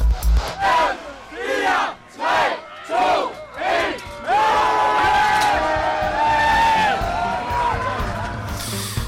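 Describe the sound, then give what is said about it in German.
A large crowd of fans at the Roskilde Festival shouts a countdown in unison as the gates open, with five loud rhythmic chants about a second apart, then breaks into a sustained roar of cheering and yelling. “Das ist der Countdown der Fans vom Roskilde Festival. So klingt er jedes Jahr, wenn die Tore geöffnet werden und die ersten auf das Gelände ja regelrecht sprinten, um dann die ersten Bands auf den Bühnen zu erleben.”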